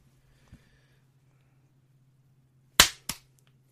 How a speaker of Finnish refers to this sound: Vedetään uudet taputukset, mä löydän sen paremmin.